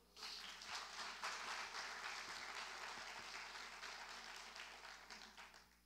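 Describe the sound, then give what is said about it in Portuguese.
A crowd applauds for the Lord steadily for about six seconds, a dense wash of many hands clapping at once, sustained with no voices standing out. “Vamos aplaudir o Senhor?”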